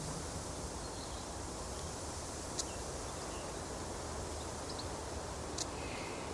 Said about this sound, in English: These are the sounds of a rainy summer's day in Blackheath Forest in the Surrey Hills, about an hour's train south from central London. A rainstorm has just passed over, soaking the bark of the young Scots pine saplings.